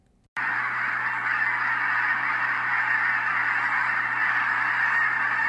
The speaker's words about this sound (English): You see this landscape of water and a marsh and hundreds and hundreds of cranes sitting around chirping together, and then they all begin to take flight.